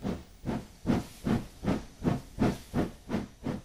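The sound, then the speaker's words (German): A huge steam locomotive at a railway station chuffs in a steady, regular rhythm, each exhaust blast a broad hissing puff repeating about every half second, continuous with no voices. “Wenn ich heute an meine Großmutter denke, höre ich das Schnaufen dieser riesigen Dampflokomotive.”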